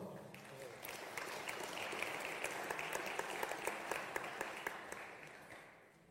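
An audience applauds steadily for about six seconds as a person is called to the front to read a Bible passage, many hands clapping in a dense, even wash with a few sharper individual claps standing out, then tapering off at the end.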